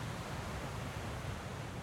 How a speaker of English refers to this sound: the tide washing in and washing over your feet, filling your footprints full of water, the tide pulling out, and those footprints beginning to disappear as if they were never there.